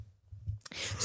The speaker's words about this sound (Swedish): Eh, gäspade du precis och det är faktum att jag berättar en Nej. historia för dig just nu? Förlåt, det är tidigt.